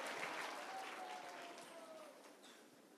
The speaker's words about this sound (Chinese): 我要邀请你站起来一下，好不好？我们很多参与服事，还有我们各地的云长，OK，各各地的云长啊，这些每一个礼拜你付出很多的，OK，来给他们英雄式的欢呼好不好？跟他们讲说，5K 有你们真好